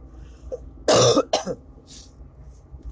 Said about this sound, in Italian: mentre il mal di gola, l'ho visto quando uno parla di mal di gola mi viene, mi viene no, di tossire.